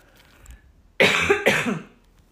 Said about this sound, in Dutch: Sorry, even hoesten.